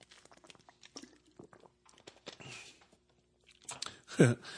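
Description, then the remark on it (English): A plastic water bottle being handled: irregular crinkles, taps and crackles scattered over several seconds, ending in a louder burst of crunching plastic. “okay okay hold on plastic water bottle recycle”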